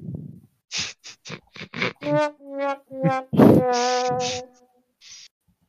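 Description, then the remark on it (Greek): A voice mimics a crow's caw, several short rough bursts followed by longer harsh, buzzy calls, loud, with no talking. “το ήταν το αστείο σου για το κοράκι να το κορακιάσετε.”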